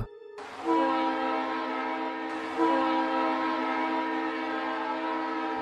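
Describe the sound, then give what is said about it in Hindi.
A loud train horn blares twice in quick succession as the train approaches a station, each blast a long, steady, rich tone that carries on without pause. No voices are heard. “तभी हॉर्न दो बार बजा”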